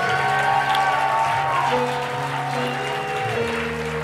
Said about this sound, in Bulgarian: Ако ръкопляскаш, дай му 10 секунди слава.